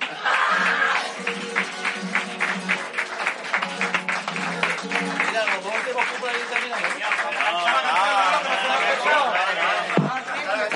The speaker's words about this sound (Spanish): arrancando la ovación del público de Enredadera, aquí congregado hoy para el Carnaval de las Ansiosas 2023.